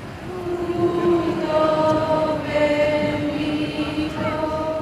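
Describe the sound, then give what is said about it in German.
A dense drum roll rumbles and grows quieter while women accompanying a procession, carrying two figures past kneeling onlookers, sing sustained, overlapping notes, fairly loud throughout, with no speech. “Der Trommelwirbel wird leiser und man hört die begleitenden Frauen singen.”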